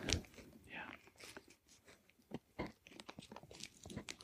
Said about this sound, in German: Ich dachte, wir könnten so ein ganz feines Audiozeugnis davon, wie eine Zigarette gedreht wird, mal aufnehmen. Ich bin leider schon halb fertig.